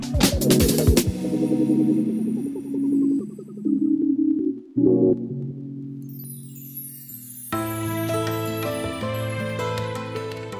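A song plays with sustained tonal instruments, opening with sharp percussive strikes, then a smoother melodic stretch before a fuller, brighter arrangement swells in near the end. No one speaks.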